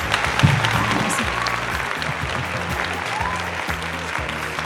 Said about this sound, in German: Komm, wir machen noch mal ein bisschen Applaus.